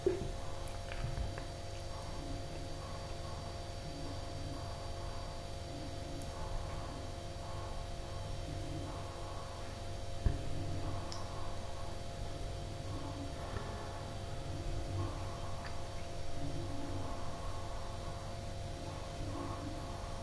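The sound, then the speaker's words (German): A refrigerator hums steadily and quietly throughout, a constant low drone with faint tonal overtones and occasional soft ticks and clicks, with no talking. “und so hört ihr alles im Hintergrund, ne? den Kühlschrank und weiß ich, was noch kommt.”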